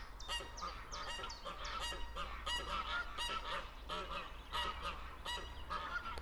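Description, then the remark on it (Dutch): A noisy crowd of geese honking continuously at a pond, overlapping calls from many birds, with coots, storks and ducks mixed in and a low steady rumble underneath. “Ze zijn heftig in discussie.”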